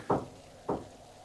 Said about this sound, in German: Ist doch ganz klar, geheimnisvolle Klopfgeräusche gibt's in jeder Gespenstergeschichte. Der übliche Hokuspokus. Meine Fantasie.